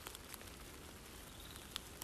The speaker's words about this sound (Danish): Så lige nu, der står jeg bare og kigger op, stadig på nøgne trækroner. Jeg kan høre lidt forskellige fugle. Jeg kan høre regndråberne. jeg kan også se, hvordan regnen driver ned af stammerne.